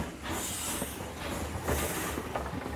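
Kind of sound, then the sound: vehicle, train departing on rails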